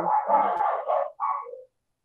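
The speaker's own dogs bark in a couple of quick, overlapping bursts, moderately loud, then fall silent; no one speaks.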